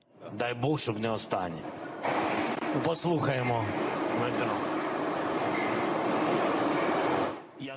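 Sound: metro train passing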